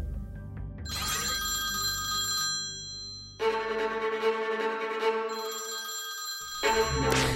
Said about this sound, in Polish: Sprawdzono, czy lekarka mogła nie słyszeć dzwoniącego telefonu. Przeprowadzono eksperyment na trzech zainstalowanych w mieszkaniu aparatach. Ustalono jednak, że kobieta na pewno usłyszałaby dzwoniący telefon.